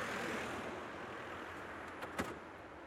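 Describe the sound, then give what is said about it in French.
Steady engine-like rumble fills the background, then a car door shuts near the end as a passenger gets into the back seat, a brief, dull thunk and a faint rattle. No one speaks. “I go in the back.”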